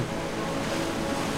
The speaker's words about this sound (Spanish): el sonido del mar. las olas rompiendo.